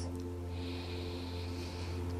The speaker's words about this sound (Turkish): Ve bir kez daha kocaman büyük bir nefes alıyoruz.